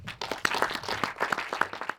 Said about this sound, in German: Bitte begrüßen Sie mit einem herzlichen Applaus